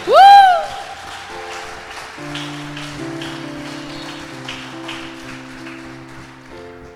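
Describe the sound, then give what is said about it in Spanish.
An audience at a church service applauds God's presence, a steady, dense crackle of many hands clapping over sustained keyboard chords, after a brief loud rising vocal cry at the start. “Si usted está sintiendo que Dios le está ministrando, denle un aplauso a su presencia, a su espíritu.”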